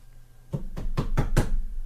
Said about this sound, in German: Die Kommunikation läuft ausschließlich über Rohrpost.